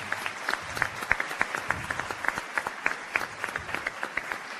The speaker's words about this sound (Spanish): también un caluroso aplauso porque seguimos impulsando estos proyectos.